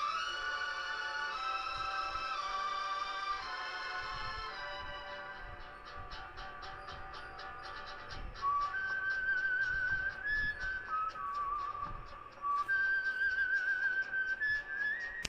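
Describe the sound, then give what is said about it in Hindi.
A short instrumental music interlude with a bright, whistle-like melody gliding over dense harmonic layers and a steady rhythmic pulse, played continuously at moderate loudness with no voices. “तो सुन लेते एक और छोटा सा म्यूज़िकल ब्रेक”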